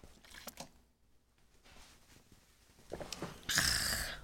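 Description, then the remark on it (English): Someone drinks water: a few small wet sips and swallows with quiet pauses between them, ending in a louder, breathy gulp. No one speaks. “It's in my car, and I'm too lazy to go all the way out there, but I have water.”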